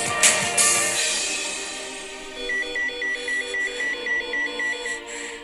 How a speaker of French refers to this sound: Mon beeper vient de sonner. J'ai un donneur.